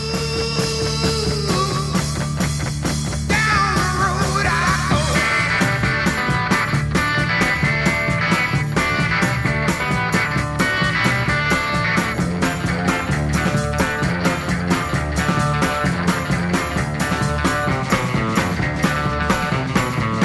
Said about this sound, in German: Wir hören jetzt mal den Übergang von der Rockabilly-Nummer, die am Anfang ist, zu dem Psychedelic-Teil.